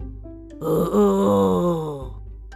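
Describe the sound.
A human voice imitates the growl of a fierce dog tied beside a gate with a ball in its mouth: a low sustained rumbling snarl that swells and wavers for about a second and a half before stopping, fairly loud.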